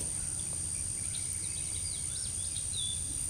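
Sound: birds singing outdoors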